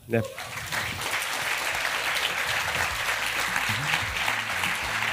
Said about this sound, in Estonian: selge suur tänu ja aplaus